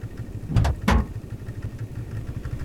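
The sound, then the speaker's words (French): A motorcycle engine idles with a low, steady rumble, punctuated early by two quick throttle revs that flare up loudly before settling back into the hum. “J'arnache cette grosse baderne sur ma moto et je rentre à la base.”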